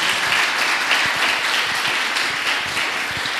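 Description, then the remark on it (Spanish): Loud, sustained audience applause at a religious gathering, given for the people connected remotely: a dense wash of many hands clapping steadily throughout with no pauses and no voices standing out above it. “Y todos los que estamos presentes aquí, ¿por qué no le damos un fuerte aplauso a esas personas que están conectados?”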